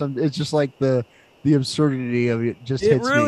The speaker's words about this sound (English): You can probably hear the crickets chirping.